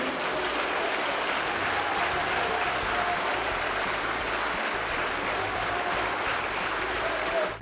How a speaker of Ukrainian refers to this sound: Ну, це знаєш, це якийсь реально кремлівський дворець з'їздів, а вони не втомлюються ніколи так весь час плескати.